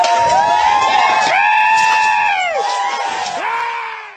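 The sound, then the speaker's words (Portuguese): Protesters from Correntina shouting loudly as they start setting fires during the occupation of the Igaracha farm on 2 November 2017, with long, high-pitched wailing cries that rise and fall one after another over a dense, continuous roar of voices. “E aí o pessoal se revoltaram e começaram a botar fogo.”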